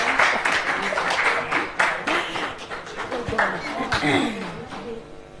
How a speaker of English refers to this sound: on stage, and just so that you can get a, a applause as well, please.